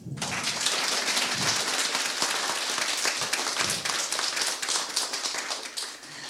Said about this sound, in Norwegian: I dag så har vi med oss en super gjest til dere. Det er …. Gi henne en applaus.